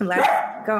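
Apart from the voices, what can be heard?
dog barking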